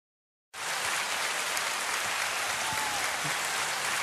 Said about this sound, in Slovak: Uh, dneska tam máme veľmi špeciálneho, špeciálneho, špeciálneho, aktuálneho, super špeciálneho hostia. Dámy a páni, veľký potlesk.